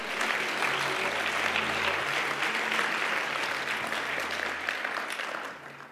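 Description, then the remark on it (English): A large audience at a church service claps steadily, a dense wash of applause that holds for several seconds and then begins to thin and fade toward the end. No voices stand out. “Can you put your hands together if you believe that?”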